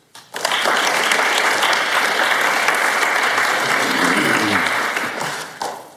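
A warm round of audience applause starts suddenly and holds as a steady, dense wash of clapping for several seconds before tapering off, with a brief flurry just at the end.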